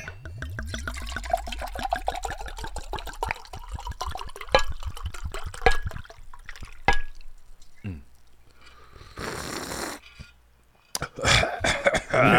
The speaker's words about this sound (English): Pour it up, good sir. Let's do it.